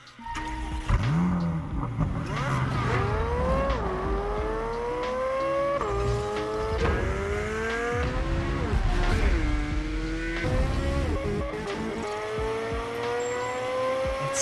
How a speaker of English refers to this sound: is powered by a naturally aspirated 5.5 liter flat plane crank V8 engine expected to rev close to 9,000 RPM and produce more than 600 horsepower. You can't go wrong with that. That 9, sounds 9,000 RPM on on a big V8 like that.